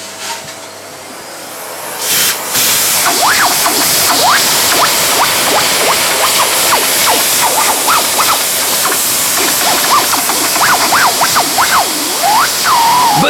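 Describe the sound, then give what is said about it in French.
A vacuum cleaner switches on after a short quiet moment and roars steadily, with warbling, whistling tones fluttering over the hiss as it is run inside a fireplace chimney flue during housecleaning. “En faisant le ménage, j'ai découvert un bruit quand on passe son aspirateur dans euh, la cheminée.”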